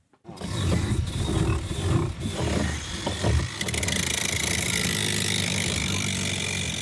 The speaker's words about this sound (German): In einem Fischereihafen auf der Insel Pingtan schleift Zhou Minghua sein kleines Boot ab.